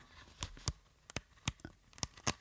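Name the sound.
rustling papers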